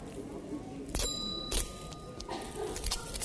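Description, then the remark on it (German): A small hand bell rings out twice in quick succession during a family church service, its bright metallic tone lingering between strikes, with faint handling clatter and a quiet murmur around it. “So, und wenn man dir auf die Schulter tippst, dann, dann, dann, musst, du einmal, dann musst du einmal klingeln.”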